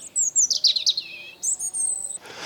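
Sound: bird chirping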